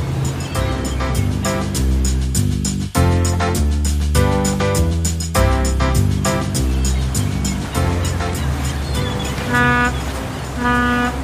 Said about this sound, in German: Warum hast du denn das Schiffshorn betätigt? Naja, ich dachte, ich warne die Leute im Hafen schon mal vor.